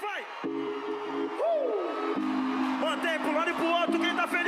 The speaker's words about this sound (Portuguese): Eu queria incluir uma música que está sendo veiculada e propagandeada como a música do verão carioca